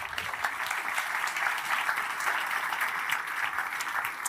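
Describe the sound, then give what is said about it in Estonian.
Steady audience applause welcoming a guest speaker at an event, a dense, continuous patter of many hands clapping at moderate loudness for several seconds without any voices over it. “nii, aplauss.”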